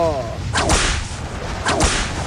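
Two sharp whip cracks about a second apart, each preceded by a quick whooshing swish through the air, loud with no voices.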